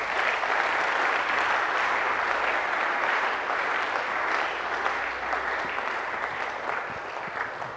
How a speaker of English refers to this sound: Can I have an amen? Give the Lord a wonderful clap of applause.